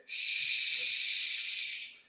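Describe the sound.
A person imitates a leaking water pipe with one steady, sustained hiss made through the teeth, lasting nearly two seconds at an even level before stopping abruptly.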